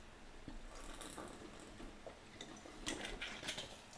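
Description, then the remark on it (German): Onions being peeled: dry, papery skins crackle and tear in irregular bursts, with small ticks and rustles, getting a bit busier toward the end. Nobody speaks. “ich schäle hier übrigens gerade die Zwiebeln, falls ihr euch fragt, was das für Geräusche sind.”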